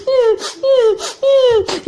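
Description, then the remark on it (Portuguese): A voice imitates an ugly duckling crying and singing, with three whiny, falling wails in a steady rhythm, each followed by a breathy sob or gasp, fairly loud. “patinho chorando, chorando, chorando, cantando.”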